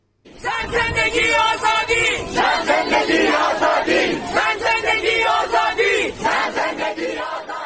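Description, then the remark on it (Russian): A large protest crowd in Iran chants the slogan "Woman, life, freedom!" in loud unison, voices rising and falling in a steady repeated rhythm, with shouting layered through the dense mass of sound. “«Женщина, жизнь, свобода!» – скандирует толпа.”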